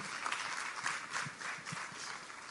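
A crowd applauds steadily, a dense wash of many hands clapping at once, sustained and fairly even throughout with no voices standing out.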